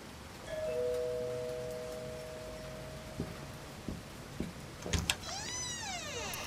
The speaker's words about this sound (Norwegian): Jeg tenker at kanskje du kan ringe på